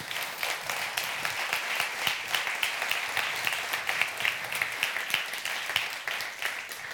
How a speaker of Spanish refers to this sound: Para mí, si estás de acuerdo conmigo, dale un fuerte aplauso a tu Dios.